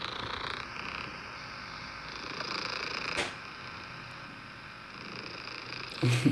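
A steady, continuous hiss of white noise plays on its own for several seconds, evenly loud throughout, with a brief click near the middle and a bump of rustling at the end.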